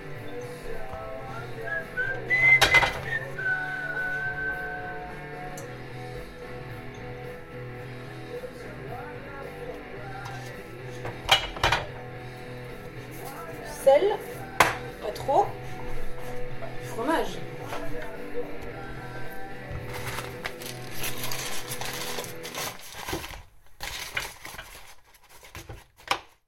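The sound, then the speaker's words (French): Kitchen cooking sounds from the audio piece Confinement de canard: scattered clinks and clatters of pots and utensils come in irregular bursts over a steady low hum, with a brief whistled tune near the start. “vous nous aviez envoyé Confinement de canard, dans lequel on vous entend notamment faire la cuisine, et dont on vient d'écouter un extrait”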